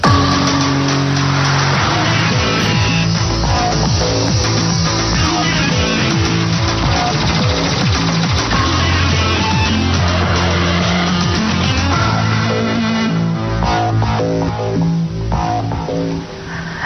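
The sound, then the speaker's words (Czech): The theme jingle of the Czech TV news magazine Sedmička, broadcast on TV Nova, plays alone, loud and steady for about seventeen seconds: dense, sustained chords with a driving low end and busy rhythmic layers, fading slightly at the very end. “znělka právě téhle relace sedmička, vysílané na TV Nova, tak pojďme si ji pustit.”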